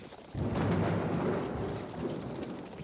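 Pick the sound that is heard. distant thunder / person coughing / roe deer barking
distant thunder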